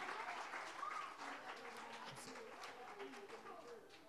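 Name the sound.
audience applause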